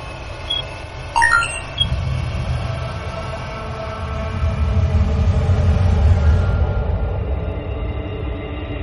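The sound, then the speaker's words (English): The magnetic resonance of a black hole at the center of the galaxy, put on audio and rendered as a deep, steady rumbling drone, with brief high metallic squeals early on and a faint hiss that swells midway, then thins out. No voices. “Let me put this on audio. You should be able to hear the magnetic resonance”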